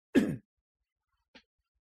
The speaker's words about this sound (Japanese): 咳払い失礼します。